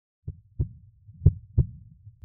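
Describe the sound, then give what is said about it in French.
A soft, muffled, barely perceptible heartbeat of a person whose body has gone limp thumps in slow lub-dub pairs, low and faint, with a steady rhythm and no voices over it. “Les pulsations sont présentes, quasiment imperceptibles, mais bel et bien là.”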